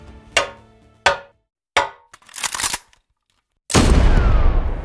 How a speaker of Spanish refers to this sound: Soldados, hagan fuego después de tres golpes con la cuchara a este tazón de lata.